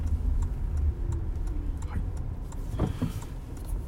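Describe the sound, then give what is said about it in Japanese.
Steady low engine and road rumble from a car driving home through heavy traffic in Tokyo, with faint regular ticking like a turn signal and a brief swell of passing-vehicle noise near the end. “えー、どうですかね車が多いななんか地方に出かけた方じゃない方も多いということですね。”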